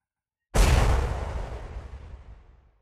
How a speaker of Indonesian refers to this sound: Tepat di atap dapur Aku terkejut. Suara yang mirip benda besar jatuh di atap dapur.